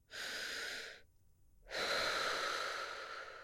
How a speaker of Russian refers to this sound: И один из типов дыхания – ты вдыхаешь носом и вдыхаешь ртом шумно так долго. Раз на пятый ты успокаиваешься, просто потому что ловишь ритм вот этого дыхания